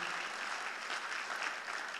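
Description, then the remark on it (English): Steady audience applause at a storytelling event, welcoming to the stage a speaker who has been in media 25 years: a dense, even wash of many hands clapping at once, sustained and fairly loud for the whole stretch with no voices standing out. “So give it up for Kris Sims, who's been in media 25 years.”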